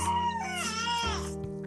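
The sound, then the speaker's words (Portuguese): A just-woken baby lets out short, whiny little cries along with a little fart, a wavering wail that dips and breaks into a second brief cry, fairly loud with no talking. “É não, gente, ele teve só um peidinho, que às vezes ele dá esses gritinhos com o peidinho.”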